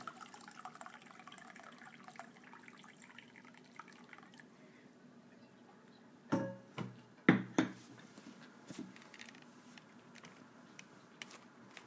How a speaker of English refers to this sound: Sorry for the pouring sound. I am uh, reheating my tea, everybody.